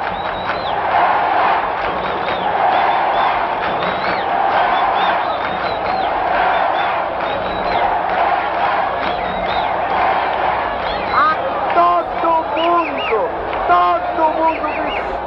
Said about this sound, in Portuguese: a torcida gritando, foi muito fantástico. O Maracanã lotado, é a torcida gritando isso e lá vai Pelé para cobrança para entrar para a história definida.